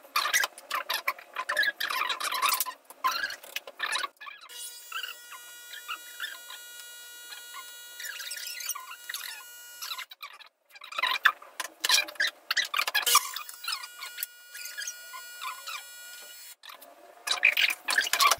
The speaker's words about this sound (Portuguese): Então tá faz o café primeiro, vai.